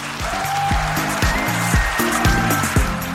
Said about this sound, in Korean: 브라보, 박수, 기립박수, 효과 나왔고요.